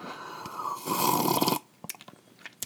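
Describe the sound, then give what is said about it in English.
A long, airy slurp of someone sipping tea from an Emily Carr mug, swelling for over a second, then a few soft mouth clicks and a quiet swallow. No one speaks. “And I've got my cup of tea again, pinkies up, which I know uh, went over real well last time.”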